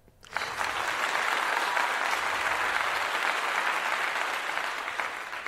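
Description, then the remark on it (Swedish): A steady burst of applause from a crowd, dense clapping that starts abruptly, holds at an even loud level for several seconds, and tapers slightly at the end. “Kan få, eh, då kan du göra den här applåd.”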